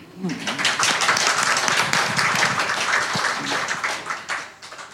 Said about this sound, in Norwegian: Så en liten applaus for henne.